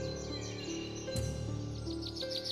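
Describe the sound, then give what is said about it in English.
Forest ambience with repeated high, quick bird chirps and tweets scattered through it, over a steady low hum. Moderately quiet, with no voices. “You only hear the sounds of the forest.”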